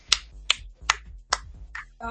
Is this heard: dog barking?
no